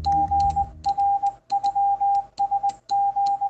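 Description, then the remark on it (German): Fast Morse code from an electronic Morse key worked by a radio amateur in Munich, two paddles pressed with thumb and forefinger: a steady mid-pitched tone keyed rapidly on and off in short and long bursts of dots and dashes, with light clicking of the paddles and no talking. “aus München drücken in rasender Geschwindigkeit mit Daumen und Zeigefinger zwei Hebel einer elektronischen Morse-Taste, die Punkte und Striche erzeugt und die Signale auf einen Sender überträgt.”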